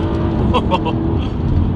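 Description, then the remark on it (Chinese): A deep, loud V8 engine rumbles steadily as the throttle blips automatically on a downshift under braking in manual mode. A brief murmur of voice sounds over the low growl. “会有这个，随着这个档位的降低，它发动机会有自动的补油动作啊，声浪非常的迷人。”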